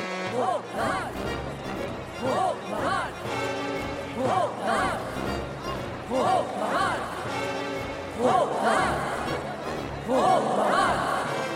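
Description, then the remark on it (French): A crowd of voices chants a name together in a steady, repeating rhythm, the shouts swelling and growing louder and more insistent over several seconds. “s'éleva doucement au milieu de la foule.”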